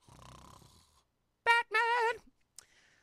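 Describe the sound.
Someone imitates snoring: two loud, throaty, voiced snorts in quick succession, the second longer and wavering, following a faint low rumble and ending in a short breathy puff.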